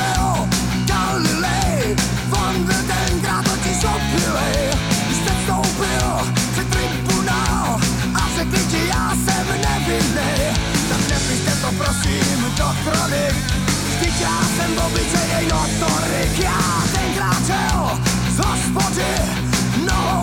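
A loud, dense rock song by a Czech band, a well-known 1990s rock piece about Galileo Galilei, plays throughout, with driving drums and distorted guitars at a steady full volume and no talking over it.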